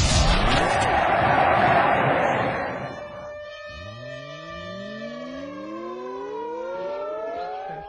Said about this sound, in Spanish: ¿Y eso de las alarmas aéreas, pa, como pa qué? ¿Porque se vienen los bombazos o cómo?